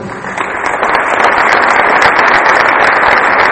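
An audience claps steadily in a strong applause for Arlene Molina, a dense wash of many hands at a fairly loud, even level from start to finish, with no voices standing out.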